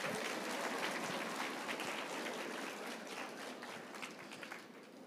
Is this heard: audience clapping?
yes